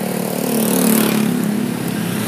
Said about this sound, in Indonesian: ada suara motor juga terus ada pokoknya ada suara lalu lintas lah ya